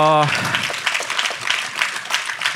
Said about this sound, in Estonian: teeme suure aplausi panelistidele